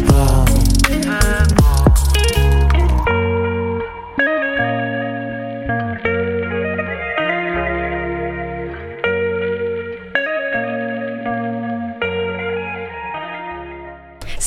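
A song plays on a radio show, loudly and steadily, opening with a dense, full band burst before settling into sustained, reverberant chords and melodic notes that shift every second or so.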